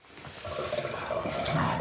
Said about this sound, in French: Et tandis qu'il fait couler le robinet d'eau froide pour apaiser sa douleur, il raconte ses déboires avec deux clients un peu trop agités.